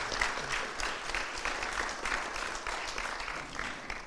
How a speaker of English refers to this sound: Uh, appreciate it. Let's give him a hand.